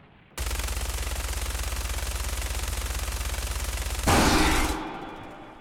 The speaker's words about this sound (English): Tex took a step forward and emptied the rest of the magazine into the creature's head.